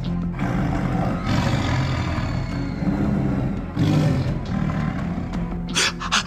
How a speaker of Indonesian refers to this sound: Adik-adik, adik-adik, harimaunya semakin dekat. Coba dengarkan baik-baik. Bahkan nafas dan geramannya bisa dirasakan oleh si monyet yang berada di pucuk pohon.